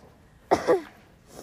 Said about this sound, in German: Sorry Leute, wenn ich so keuche, immer wenn ich renne. Aber ich glaube, das ist normal, dass man keucht.